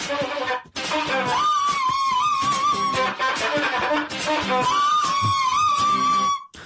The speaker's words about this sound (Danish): Læg mærke til, der er to fløjter og en cembalo